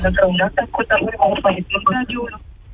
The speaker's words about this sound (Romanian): Radioul puțin mai încet și vă ascultăm.